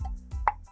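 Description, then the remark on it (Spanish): A single short, hollow plop made by a voice imitating the water in a fish tank, a quick mouth pop with a low rumble before it, fairly quiet. “Cuando de repente escucho que el agua hace así,”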